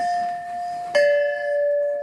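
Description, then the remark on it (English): A heavy red pipe made of heavy-grade steel rings with a clear, sustained metallic tone, then is struck again near the middle, renewing a bright bell-like resonance that hums steadily to the end. “These here are, are red pipes. They're made of steel. They're very heavy, very heavy grade of steel.”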